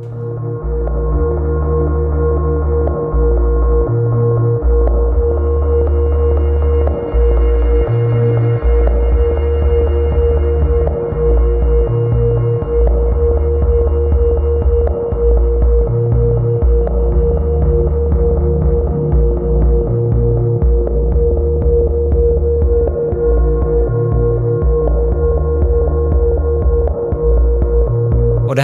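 Steady ambient music with a deep, prominent bass line pulsing in blocky low notes, a muffled, barely audible rhythm underneath and sustained hazy tones above; continuous and fairly loud, with no voices.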